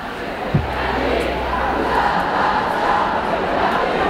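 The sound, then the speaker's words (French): A crowd chanting at a night Pride march, a dense, steady roar of many voices shouting together that holds for the whole stretch, with one brief low thump near the start. “J'étais encore jamais venu à une Pride de nuit et je voulais voir à quoi ça ressemblait et puis ben, ben marcher avec tout le monde quoi.”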